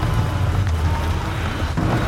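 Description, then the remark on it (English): Steady rain falls with a dense, continuous hiss, while a deep low rumble of thunder rolls underneath throughout, with no voices present. “And the rain just can't touch me.”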